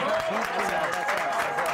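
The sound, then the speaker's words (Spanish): A crowd applauds steadily throughout, a dense wash of clapping with some cheering voices mixed in, sustained without a break. “Si yo les doy un aplauso. apláudanle aquí.”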